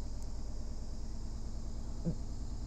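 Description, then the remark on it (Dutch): A washing machine, just switched on, runs with a steady low mechanical hum and faint whirring noise, continuous and unchanging, with one small brief knock near the end and no voices. “De wasmachine gaat aan.”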